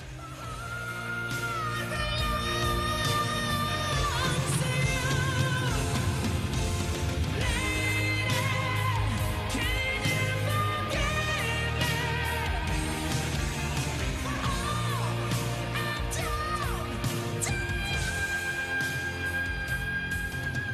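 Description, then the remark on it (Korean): A full-band rock ballad plays steadily throughout, with a soaring, very high-pitched male vocal holding long notes over drums, bass and guitars. No one talks over the music. It is a song that was popular at the time, known for its very high notes. “아 그러면 어, 그때 유행했던 노래 중에 고음병을 일으켰던 붕시켰죠그 곡 한번 들어볼게요.”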